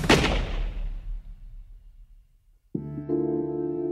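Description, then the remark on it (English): A single loud gunshot cracks at the start and rolls away in a long, fading echo; after a brief hush, a sustained musical drone swells in. It depicts a man turning and shooting a woman as they flee through trees from an ambush by British authorities in 1817. “She started falling behind, and then Michael turned around and shot her.”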